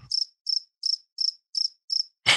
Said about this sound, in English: We got nothing to say about it. So I hope Couch heard the crickets and uh, and all that good stuff.